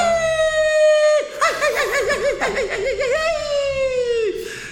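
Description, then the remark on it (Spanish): A man lets out a long, high mariachi-style grito, a sustained held note that breaks into a rapid warbling yodel and then trails off in a falling wail, loud and alone. “Pero te quiero gritar, pero te quiero gritar como un mariachi, ¿puedo?”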